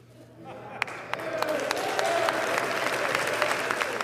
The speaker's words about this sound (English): You hear that applause at the end of the uh, speech. Those are Republicans, obviously, not Democrats.